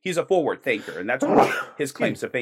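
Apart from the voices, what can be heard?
sneeze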